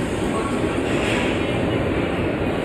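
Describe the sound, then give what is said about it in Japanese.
A subway train roars steadily at the underground platform of Ueno Station on the Ginza subway line, with Typhoon No. 7 still around, a loud, continuous rumble with faint rail rattle and no voices, holding one level throughout. “地下鉄銀座線の上野駅に来ております、えー、ホームがね非常になんかおしゃれでね、えー、柱がめっちゃ綺麗っていうね、えー、めっちゃ綺麗柱でこれから渋谷に向かいたいと思います”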